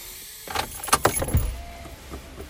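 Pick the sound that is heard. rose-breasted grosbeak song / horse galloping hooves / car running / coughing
car running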